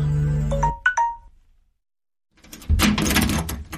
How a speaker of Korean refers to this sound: 엄마의 깨우는 소리나 전화벨 소리가 나면 중력이 몰려왔다.